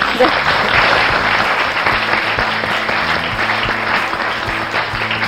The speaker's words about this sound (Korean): 그리고 박수 한 번 드리고 진행할까요?